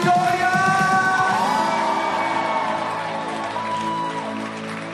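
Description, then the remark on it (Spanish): A crowd claps and shouts together, loud, with raised voices and cheering filling the space over sustained musical tones. “Vamos con las palmas aquellos que lo creen.”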